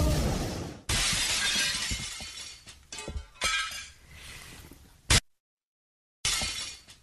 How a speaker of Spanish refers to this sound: órale, se rompió algo, una ventana, será un vidrio, alguien aventó algo. Eh, hasta el momento no sabemos.